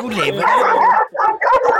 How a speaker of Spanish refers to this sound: No sé si me oye algo porque estoy en la calle y todo, como salgo a caminar con mis perros, todo el perrerío me ladra.